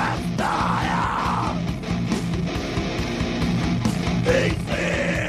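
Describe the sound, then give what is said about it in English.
A short, loud burst of screaming music from a jingle sent in by a listener, with harsh shouted vocals over dense distorted instruments and pounding drums, filling the whole few seconds at full intensity. “Play his jingle.”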